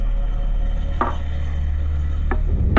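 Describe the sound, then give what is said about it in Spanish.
Three dull, heavy thuds land at uneven intervals, like muffled hammer blows, over a steady low rumble. No one speaks. “Estaba soñando muy tranquilamente cuando me despertó un sonido sordo y grave, como un martilleo.”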